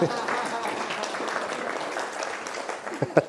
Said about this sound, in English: Can we have a round of applause for my assistant today?